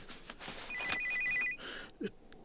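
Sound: telephone ringing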